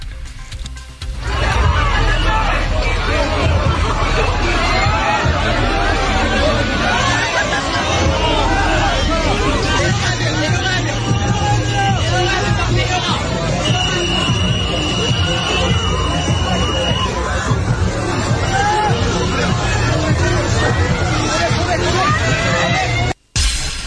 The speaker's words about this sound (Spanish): Escuchemos un poco de la estampida. La verdad es que las imágenes son aterradoras.